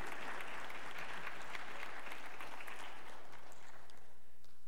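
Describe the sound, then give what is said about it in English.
A church audience breaks into sustained applause celebrating a new sister in Christ, a dense wash of many hands clapping at a steady level before it begins to thin out near the end. “And with this, I would love for you to celebrate with your applause our new sister in Christ.”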